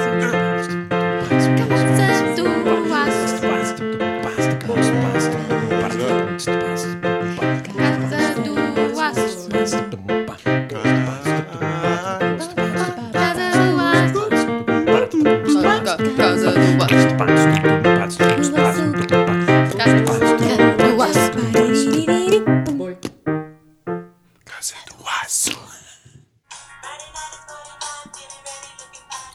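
A song plays loudly and steadily with rich melodic instruments, then fades out near the end, leaving a few brief scattered sounds.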